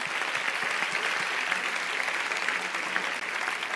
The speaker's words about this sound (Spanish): Si ese aplauso es para el Señor, dáselo mejor.